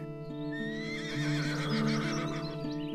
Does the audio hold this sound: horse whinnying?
yes